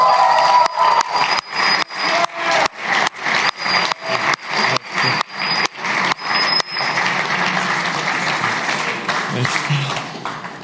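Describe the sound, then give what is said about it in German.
A crowd claps in a steady rhythmic beat for several seconds, with whistles and cheers over it, then the clapping dissolves into a continuous wash of loud, scattered applause, welcoming a guest onto a stage. “Und darum, lasst uns mit einem warmen Applaus”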